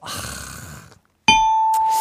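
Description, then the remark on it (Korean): A bright electronic ding-dong-dang quiz-show chime signaling a correct answer rings out suddenly after a brief silence, a sustained bell-like tone that follows a stretch of rumbling noise, loud. “추, 충분히, 노, 노력했으니, 딩동댕 해주세요.”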